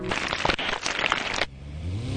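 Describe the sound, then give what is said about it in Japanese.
A motorcycle engine roars loudly for over a second, then cuts to a lower, quieter hum that rises in pitch as it revs back up. “バイクでゴー”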